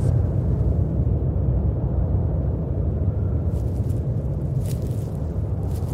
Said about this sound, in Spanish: Afuera comienza una tormenta que se traga la luna y las estrellas, dejando el mundo en completa oscuridad.